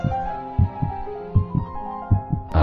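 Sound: heartbeat sound effect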